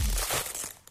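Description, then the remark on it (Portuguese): A package being opened, with a dense burst of crinkling and rustling packaging over about a second that fades slightly toward the end. No voices. “Então, eu penso que será um pacote a abrir, uma embalagem.”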